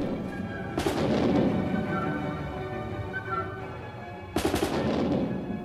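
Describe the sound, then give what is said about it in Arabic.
Special mechanical instruments, designed at the time to represent the atmosphere of battle, mimic combat: two loud cannon-like booms, one early and one near the end, with rattling rifle-like fire rolling over a dense, steady orchestral din of violins, wind instruments and drums. No one speaks. “وبلحظة بتبدا المعركة أصوات بتشبه المدافع والبواريد عم تدوي وتلعلع بتعزفها آلات ميكانيكية خاصة صممت بوقتها لتمثل أجواء المعارك والأوركسترا من كمانات وآلات نفخ وطبول عم ترافقها بألحان دراماتيكية مثيرة بتضل شغالة هيك لحتى ينطفي آخر مدفع”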